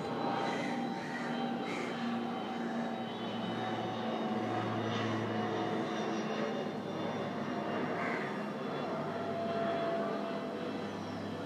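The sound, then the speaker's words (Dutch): A small propeller airplane drones steadily overhead, its low engine hum holding a constant pitch for the whole stretch, moderately loud, with no voices. “Even tussendoor, er vliegen op de aarde nog vliegtuigjes met schroefmotoren.”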